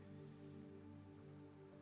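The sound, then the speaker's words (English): Soft, steady rain patters on sails, a taut surface like canvas, a continuous drumming of drops with a low hum beneath, quiet and unbroken throughout. “and remember that it the rain starts to fall, uh, both on the sails, and you can hear it patter as well.”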